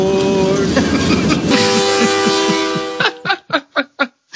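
A loud, sustained train horn blares for a few seconds, then gives way to the steady, rhythmic clickety-clack of train wheels rolling over rail joints.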